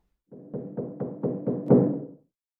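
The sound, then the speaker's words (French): A quick, even run of about six or seven knocks on a resonant, slightly hollow metal oven door, growing louder, with the final knock the strongest. No one speaks. “elle entendit frapper à la porte du four.”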